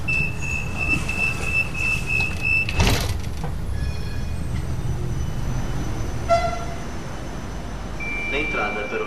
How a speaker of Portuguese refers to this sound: comboios, atenção à distância entre as portas e a plataforma.